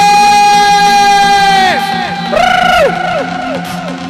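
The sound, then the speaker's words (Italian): Loud, sustained cheering and whooping from an audience applauding a DJ, with long drawn-out voices that hold a pitch and then swoop up and down, prominent for the whole moment. “Mi piacerebbe sentire un applauso”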